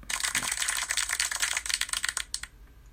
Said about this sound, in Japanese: これこの拍手の音あるじゃないですかこのラジオトークからもうすでになんか備わってる音なんですけど